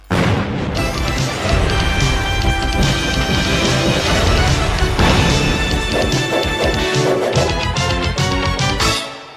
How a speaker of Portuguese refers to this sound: o somzinho da tela quente, entendeu? Isso é mais vinheta sonora